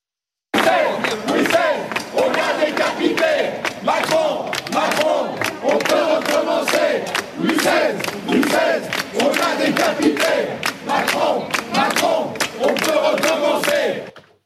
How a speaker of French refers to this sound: Et vous allez voir à droite de, votre écran, hein, là aussi avec ça son écharpe tricolore, ce qui a choqué, ce sont les mots scandés. Écoutez.